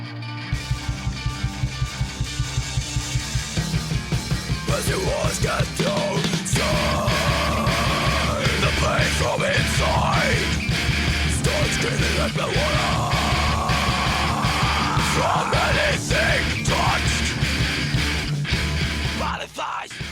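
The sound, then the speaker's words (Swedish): A raw, screamy emo song in a rough demo recording: loud strained yelling vocals ride over dense distorted guitars and a steady, driving drum beat that pounds throughout. “det är ju väldigt väldigt skrikigt så. Och verkligen mm. så här mm. garageband”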